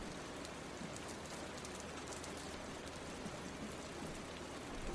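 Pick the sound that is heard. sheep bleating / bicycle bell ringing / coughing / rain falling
rain falling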